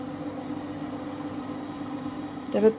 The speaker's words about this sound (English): This wets the towel with the liquor and wrings it out at the same time. You can already hear it squeaking.